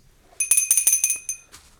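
A small, bright bell rings in a quick trill of about seven rapid strikes, fairly loud, followed by a softer final ding, with no voices.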